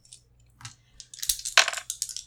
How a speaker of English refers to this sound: Uh, you- one of my dice fell down.